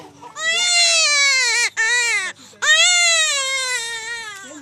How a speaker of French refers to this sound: Vous venez de le piquer là et il crie. Ça fait mal.